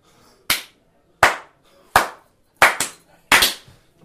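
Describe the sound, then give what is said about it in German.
A run of sharp, bright hand claps, about seven in all, with uneven spacing: single claps at first, then quick double claps near the end. Loud and crisp, with no talking. The claps are made in front of the microphone to synchronise the recordings. “wir haben, wir haben nicht geklatscht.”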